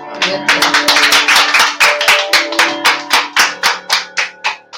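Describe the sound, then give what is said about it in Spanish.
Steady rhythmic clapping, about four to five loud claps per second in even unison, continuing throughout over a faint sustained tonal hum. “Gracias, aplausos.”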